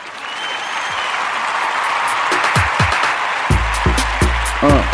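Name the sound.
applause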